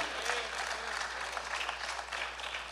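An audience applauds steadily, a dense wash of many hands clapping at once that sustains evenly throughout.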